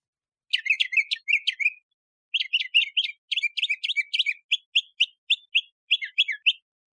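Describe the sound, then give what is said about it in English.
An older male mockingbird sings alone, rattling off rapid, varied chirpy phrases, pausing briefly, then resuming with a string of repeated bright notes that shift pattern every few seconds. “that A is is sung by an older male, an older male mockingbird.”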